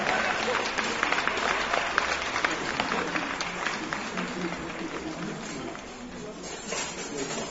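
Sustained applause from an audience, a dense steady patter of many hands clapping at an even loudness for several seconds, with sharper individual claps standing out now and then.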